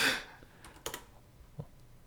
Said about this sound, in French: Et là, vous entendez les deux claviers de chaque côté qui sont en train de taper.